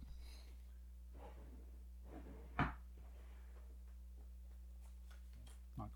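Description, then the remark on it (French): Quiet, scattered rustling and handling noises, like someone rummaging for a sheet of paper, with one sharper knock partway through, all over a steady low electrical hum. “Où c'est que j'ai mis cette feuille-là”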